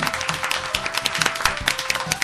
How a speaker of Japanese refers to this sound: 嬉しいなこんなにも割れんばかりの拍手いただいてね